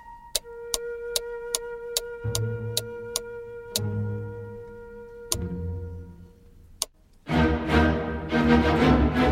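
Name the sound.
clocks ticking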